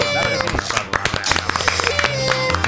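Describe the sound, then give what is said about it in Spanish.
Dense applause from a crowd, a steady wash of overlapping claps with sharper individual hits, mixed with cheering voices and a tonal background sound. “Un aplauso, un aplauso.”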